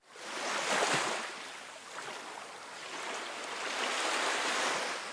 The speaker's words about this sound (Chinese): 耍帅不过两秒钟，伴随着巨大的海浪声，整个返回舱都剧烈的摇晃起来。